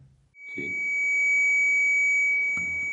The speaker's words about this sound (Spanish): La temperatura empezó a cambiar. Sí. Este sonido que estamos escuchando corresponde al sensor de temperatura del SB11 que nos indicaba en ese momento que la temperatura estaba ascendiendo.